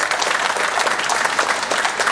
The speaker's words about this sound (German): Guck mal, dein Applaus.